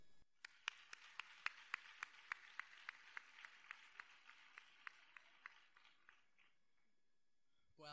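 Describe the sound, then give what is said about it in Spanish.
Audience applause at a ceremony as the authorities stand to hand out gifts and class portraits: a wash of many hands with sharper claps landing in a steady rhythm, tapering off near the end. “Fuerte aplauso.”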